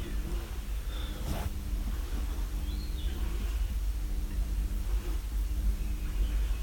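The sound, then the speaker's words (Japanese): Faint, scattered forest birdsong chirps, a few short calls over a steady low rumble and deep snorting from a cow. “若干森のさえずり的なものも入れつつ牛ですね”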